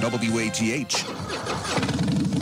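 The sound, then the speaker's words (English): A popular American motorcycle's engine cranks and fires up, settling into a loud, rumbling idle with uneven throbbing pulses, while a voice is briefly heard at the start. “This is the sound of a popular American motorcycle.”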